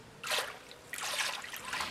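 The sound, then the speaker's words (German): Water rushes and splashes in two bursts into huge metal tanks at an organic wine estate in the Balearic Islands, a broad hissing pour with a faint hollow ring, with no voices. “Sie lässt Wasser in riesige Metallbehälter laufen, während ihre Angestellten die Fässer reinigen, um die Ernte dieses Jahres abzufüllen, zum großen Teil Wein aus heimischen Sorten.”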